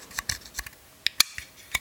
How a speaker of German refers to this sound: So, ich habe mein Glas hier schon mal bereitstehen und ich mache das Bier jetzt auf.